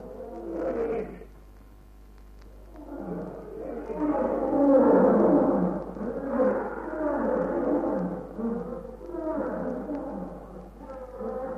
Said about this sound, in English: Lion not come back, Bwana. Maybe other animal, but not lion. They all come when they hear roaring.